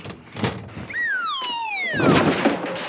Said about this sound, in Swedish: Ursäkta, jag måste öppna fönstret.